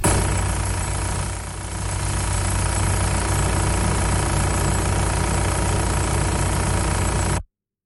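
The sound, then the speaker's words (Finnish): A Transporter van engine idles steadily, its loud, even drone overlaid with a constant mechanical rattle as something wobbles in the engine, lasting about seven seconds before cutting off abruptly. “tai tämä video moottorista”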